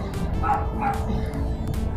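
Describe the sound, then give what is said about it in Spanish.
A small dog barks in short, sharp yips, several in quick succession over a couple of seconds, against a steady low background rumble. “Ese pinche perrillo no va a dejar de estar ladrando.”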